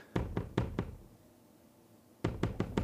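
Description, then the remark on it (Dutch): Someone raps four times on a front door, pauses for about a second and a half, then knocks four more times. The knocks are sharp and solid, with no voices. “Oh, Wacht even, staat iemand voor de deur.”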